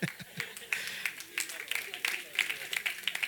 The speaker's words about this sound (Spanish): un aplauso al Señor.